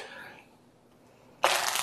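After a near-quiet stretch with a fading voice, a sudden burst of dense, crisp rustling begins and continues steadily as a regular pack of playing cards is riffled and thoroughly shuffled face up.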